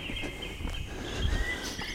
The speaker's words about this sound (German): Vor mir liegt nur Grün. Viele Vögel, die kann man gut hören.